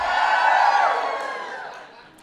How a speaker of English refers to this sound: For some reason, every single queer person I know has a nemesis. Please cheer if you have a nemesis.